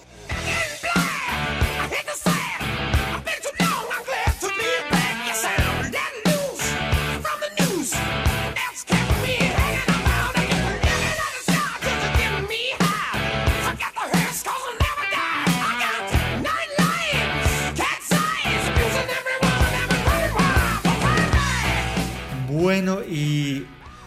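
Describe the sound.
A loud, dense hard rock song plays continuously with driving drums, heavy guitars and a singing voice, filling the full range until it cuts off just before the end.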